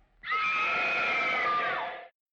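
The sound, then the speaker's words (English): A woman's high, sustained scream in the style of an old 1950s black-and-white film sound effect, a lady screaming before she gets murdered: one loud held shriek lasting about two seconds before cutting off abruptly, with no other sounds around it. “You know what I want to do is I want to edit in every time we say Calvinism an old footage of like 50s black and white lady screaming before she gets murdered.”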